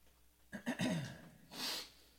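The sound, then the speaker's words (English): A single sneeze bursts out with a voiced, throaty sweep, followed a moment later by a short hissing sniff. No one speaks. “Sorry about my sniffles. I uh, there's something down here that's making me sneeze.”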